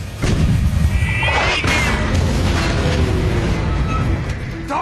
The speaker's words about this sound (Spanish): Impacto directo. Recarga. Derriba al Panzer de cabecera de un solo disparo. Ahora los tanques que vienen por detrás no pueden pasar.